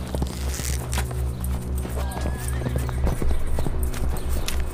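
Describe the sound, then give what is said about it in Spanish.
Steady clip-clop of several horses' hooves at a brisk, even rhythm, with a brief whinny-like cry partway through and busy outdoor noise around it. “¡Y llevan caballos!”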